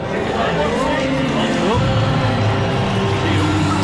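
A concert audience roaring and chattering in a dense, steady wash of crowd noise as the band arrives on stage, loud throughout, with higher shouts and cries rising out of the babble.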